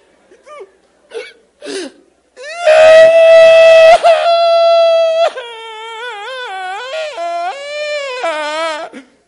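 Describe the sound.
A voice imitates a child's crying: a few short hiccuping gasps, then a loud, sustained wail that breaks into long, wavering sobs, with no other sound around it.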